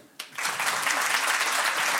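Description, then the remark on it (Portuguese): After a brief quiet moment, a Portuguese audience breaks into applause, clapping to vote on whether they like a performer's style: a dense, steady wash of many hands clapping that holds at an even, fairly loud level until the end. “Está aqui é uma pessoa que bate palmas a tudo eu gosto, mas pode ser melhor.”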